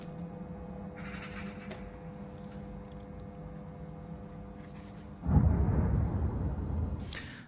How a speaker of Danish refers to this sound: Og der kom eksplosionen.